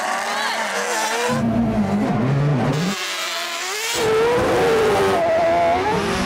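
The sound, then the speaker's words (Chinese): Loud, roaring engines of racing cars, including a Red Bull RB8 Formula One car of 850 horsepower, and motorcycles accelerating hard as they race along a 400-metre airport runway, their pitch climbing in rising sweeps that overlap and swell over several seconds, with a brief lull before another surge. “这些猛兽又在四百公尺的飞机跑道上一较高下。”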